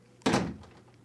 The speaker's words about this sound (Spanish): Cierra la puerta y déjanos solos.